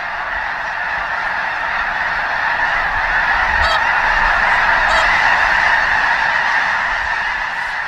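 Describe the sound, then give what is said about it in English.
A large flock of snow geese flying across the sky honks continuously, a dense, steady chorus of overlapping calls filling the air, loud, with a few sharper individual cries standing out near the middle. “to view an amazing video and find out where you too might see snow geese”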